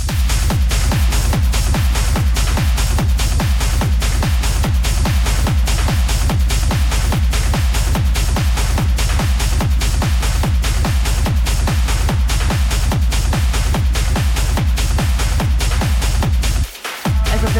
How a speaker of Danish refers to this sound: det, er øh, det er meget stramt, men det er også sådan lidt sådan uh, big room. Uh, det er en stor teknolyd, det her. Altså, ja. Det passer til et uh, gigantisk anlæg. Har vi Gregorian chanting, der kører ind over i baggrunden? Er det rigtigt?